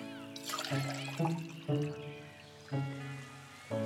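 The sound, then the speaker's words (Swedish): Juice is poured into a glass with a bright splashing trickle, and a few gurgling, tonal glugs rise in pitch as it fills. The sound is clear, with no voices. “Ja, svarade mamma Troll medan hon hällde upp saft åt Flisa och Sten.”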